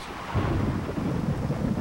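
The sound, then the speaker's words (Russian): Heavy rain pours steadily while a deep, rolling rumble of thunder fills the background for the whole stretch, dense and fairly loud with no voices. “Дождь продолжался. Жестокий, нескончаемый дождь.”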